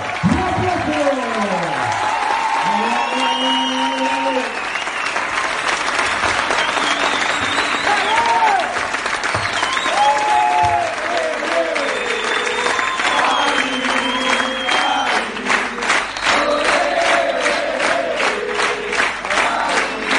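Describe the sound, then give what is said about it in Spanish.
A large audience, asked to stand, claps loudly and steadily for about twenty seconds to welcome an entrepreneur, with whistles and cheering shouts rising over the dense, continuous applause. “Así que les voy a pedir a todos que se pongan todos de pie y reciban con un muy, pero muy fuerte aplauso al empresario y al hermano la alma,”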